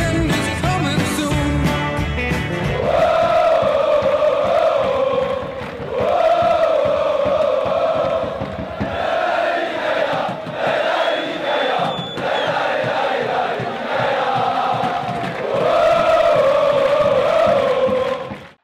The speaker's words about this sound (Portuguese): Pano de fundo, um cântico muito entoado em todos os campos onde o Nice joga, seja fora, eh, e neste caso estamos até a ouvir uma gravação no campo dos grandes rivais do Mónaco, seja em casa, no seu estádio, inaugurado em 2013, o Allianz Riviera.